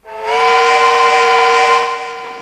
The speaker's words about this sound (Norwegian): Tut-tut, sier frokosttoget.